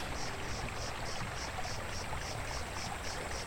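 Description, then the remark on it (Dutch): A small, deserted brook babbles gently and continuously, a soft steady trickle, with a faint, regular high-pitched chirping pulsing above the water throughout. “bent vandaag volledig per toeval beland bij een compleet verlaten, rustig kabbelend beekje.”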